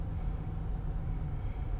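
A car's low, steady engine and road rumble fills the short stretch, holding an even loudness throughout with no voices, as the vehicle eases over.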